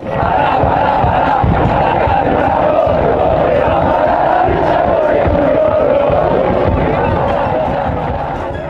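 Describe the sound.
A large crowd of football fans chants together in the stands, a dense, loud wall of voices holding a steady sung rhythm throughout, with occasional thumps and shouts cutting through.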